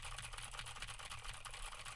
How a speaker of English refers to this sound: Now I am typing on a keyboard with Gateron blue switches to see how much of my voice versus how much of the keyboard it rejects.